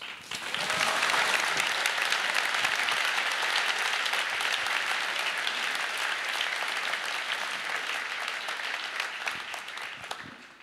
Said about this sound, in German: Vielen Dank, dass ihr so ehrlich hier auf dieser Bühne und so tief erzählt habt. Das ist euer Applaus.